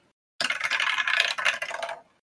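Dice rattle and clatter across a hard tabletop for under two seconds as a player casts a spell in a tabletop role-playing game, a dense burst of bright clicking taps that settles quickly into silence.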